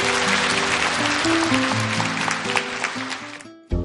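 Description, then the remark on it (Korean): A crowd applauds steadily and loudly for several seconds, a dense wash of clapping with some music-like tones underneath, cutting off abruptly near the end. “박수 부탁드리겠습니다.”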